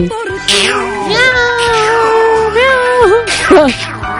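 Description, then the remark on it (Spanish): People imitate a cat, drawing out long wavering meows with sliding pitch, several voices overlapping loudly for about four seconds. “Todos los sagitarios maullando.”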